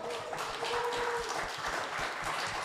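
An audience claps steadily to welcome the second guest onto the stage: a dense, continuous patter of many hands filling the whole stretch, with a faint tone briefly sustained underneath and no voices.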